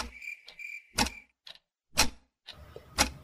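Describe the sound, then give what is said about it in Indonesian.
A wall clock ticks steadily, one crisp click each second, clear in a very quiet bedroom at midnight, with a faint high chirping tone in the first second. “Lalu dia menatap jam dinding.”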